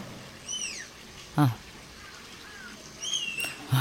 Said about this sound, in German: Ja. Ach, oh ja, es ist der Tapir. Genau, ja, genau.